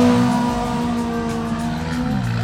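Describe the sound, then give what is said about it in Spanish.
Rally car engines roar steadily at high revs as the 15-second countdown is given at the start of the 23rd Subida Saleta hill climb in Carballiño, a loud, sustained mechanical drone with strong harmonic tones and slight pitch shifts, with no voices over it. “Ya le indican 15 segundos en el, en el cuadro y automáticamente, pues nada, rugir los motores.”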